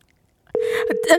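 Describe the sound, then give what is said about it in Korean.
After a brief silence, a steady telephone tone kicks in abruptly and holds as a call from the Korean radio show Gayo Gwangjang to a listener goes unanswered, with voices talking over it. “아쉽게도 어, 전화 연결이 불발됐고요.”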